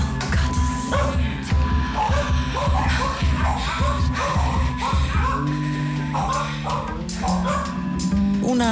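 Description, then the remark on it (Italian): Four dogs, the singer's own, bark repeatedly in short, sharp bursts over a dense, loud music backing in a home-produced song, the barks woven into the track with a steady rhythmic pulse underneath. “produzione tanto casalinga quanto ricca di suoni non banali, suoni che a volte includono anche l'abbaiare dei suoi cani.”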